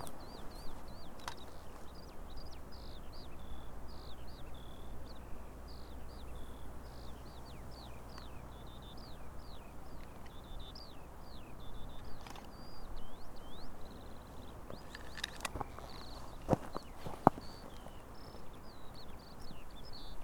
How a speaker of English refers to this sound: And there the skylarks are singing.